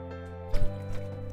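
A quick sip of water: a soft wet slurp and gulp lasting a moment, followed by a fainter swallow, over a steady low background hum.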